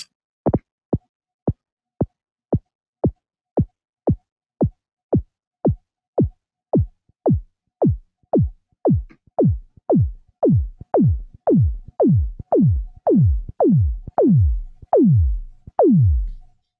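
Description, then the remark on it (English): A steady series of about thirty synthesized kick drum hits from a designed kick sample with increasing decay, each a low pitch-dropping thump whose decay grows steadily longer until the hits blur into drawn-out booming sweeps, with no talking. “like for example, when I was designing this uh, kick sound, I'll make a sample that looks something like this, where you have just like an increasing decay or something, whatever parameter you want to modulate.”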